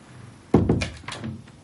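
A bedroom door is closed from the living room side, swinging shut with a solid, low thunk, followed by a softer rattle as it settles into the frame; a single fairly loud closing with no voices.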